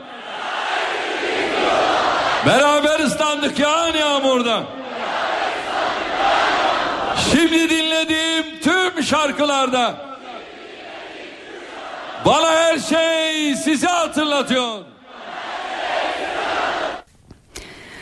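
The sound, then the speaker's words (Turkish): A large outdoor crowd at Prime Minister Recep Tayyip Erdoğan's presidential election campaign rally in Yozgat, Turkey, sings a song together in unison, loud and reverberant, with bursts of strong, sustained melodic phrases separated by brief swells of crowd noise. “Kardeşlerim şarkımıza da hazır mıyız?”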